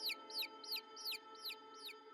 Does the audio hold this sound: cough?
no